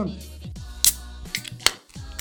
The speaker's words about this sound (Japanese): 早速、お酒開けていきましょうか。